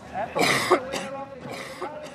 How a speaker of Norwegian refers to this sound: Nemlig hostingen pga. astma. Uh, det plager ham så mye at en konkurranseform som Tour de Ski har blitt for tungt. Hosting mellom konkurranser og på kvelden og natten er så slitsomt at han tror dette blir hans siste tur